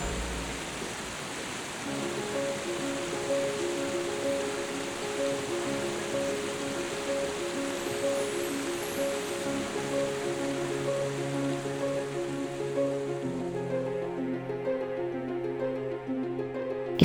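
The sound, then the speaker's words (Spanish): A steady, dense roar of rushing water from an impressive waterfall at the end of a path fills the whole stretch, with soft sustained musical tones drifting underneath; it thins out near the end. “Has llegado al final del camino y al lado de una impresionante cascada de agua encuentras un árbol.”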